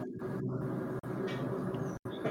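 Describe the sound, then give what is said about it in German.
A steady, broad rumbling roar of a train on nearby tracks and an airplane passing by at the same time outside, continuous, with no talking and two brief abrupt cutouts. “das war jetzt irgendwie ein Zug und ein Flugzeug gleichzeitig”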